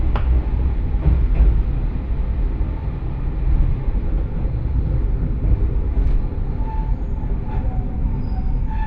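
A local one-man train on the Johana Line in Japan runs steadily along the rails from Aburaden to Johana, with a continuous low rumble and rhythmic wheel clatter, a few faint higher squeaks and clicks rising above the steady roar, with no voices.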